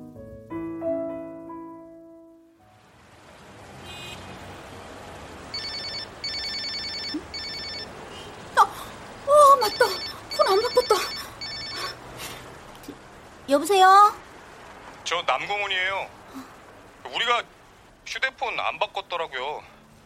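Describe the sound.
A phone ringtone plays a steady run of repeating high electronic tones for several seconds, joined and then followed by brief bursts of voices and sharp chirping sounds.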